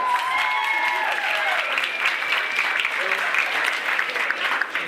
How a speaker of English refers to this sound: now here, come up, round of applause.